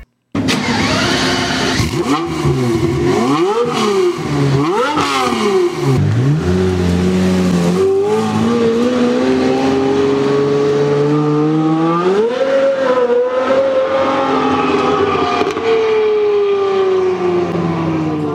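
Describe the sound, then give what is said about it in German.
A Pagani Zonda supercar engine, through its four-pipe exhaust arranged like a cloverleaf in the middle of the rear, blips and revs repeatedly, pitch sweeping up and down in sharp surges, then settles into a loud, sustained high-revving drone, with no voices. “Höchste Zeit, dass wir uns anhören, wie der Sonder klingt. Aus seinem ziemlich einzigartigen Vierrohrauspuff, der wie ein Kleeblatt in der Mitte des Hecks angeordnet ist.”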